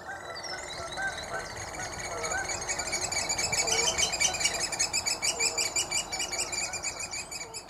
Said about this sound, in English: What better bird to choose for pipers piping than the oyster catcher, our tweet of the season for today.